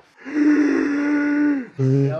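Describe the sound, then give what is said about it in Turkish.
A loud, drawn-out yawn made by a human voice imitating it, holding a long groaning tone for over a second, then ending in a brief lower vocal burst. “Hadi esnedin. Ses çıkarma bari ya.”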